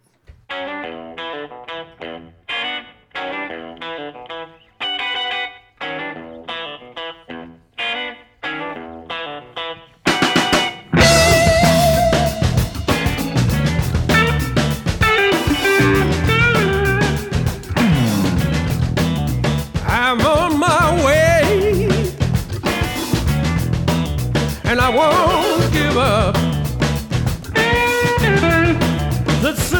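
A country rock song played on a radio broadcast opens with a thin, filtered guitar riff picking out a steady pattern, then after about ten seconds the full band crashes in loud with distorted guitars and drums.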